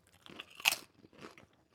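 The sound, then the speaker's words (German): Potato chips being crunched in a studio: one loud, sharp, crackling bite, then softer, irregular chewing crunches, and a brief low thud at the very end. No one speaks. “Jetzt wird mir hier Chips im Studio und krümmeln ja.”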